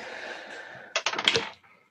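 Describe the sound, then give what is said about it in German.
A quick burst of hard clicking rattles across a tabletop as players roll dice for initiative, several small plastic dice tumbling and clattering for about half a second before settling, fairly loud after a faint murmur. “aber ihr dürft jetzt alle Initiative würfeln.”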